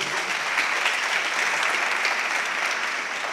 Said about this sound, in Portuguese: Você pode dar um aplauso a Jesus aí?